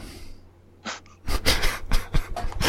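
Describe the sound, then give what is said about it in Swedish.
A short click like a lighter being flicked, then a run of breathy puffs and inhales as someone lights a cigarette and draws on it while holding a phone to the ear, outdoors in the sun. Nobody speaks. “alltså jag försöker hålla telefonen vid örat samtidigt som jag tänder cigaretter och dricker vin.”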